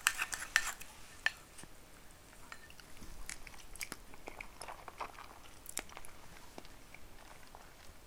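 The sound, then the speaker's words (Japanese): Chopsticks scrape and click against a plate while sticky natto is stirred, making light, irregular taps and scratches. The sounds are fairly quiet and come in uneven bursts, with no talking. “思った以上に大した音はしないこれほとんど箸箸が皿にこすれてる音 納豆だよ”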